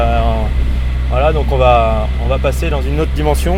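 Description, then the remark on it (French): Rocket thrusters give off a steady, loud low rumble with a faint crackly edge, running unbroken beneath a man talking throughout. “Voilà, donc là, ce que vous entendez, là, euh, ce sont euh, les, propulseurs de fusée.”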